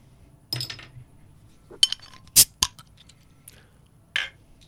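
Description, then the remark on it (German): Beer glasses clink together in a toast, a few bright, sharp knocks close together in the middle, with soft handling and shuffling sounds before and after and no talking. “Prost. Prost.”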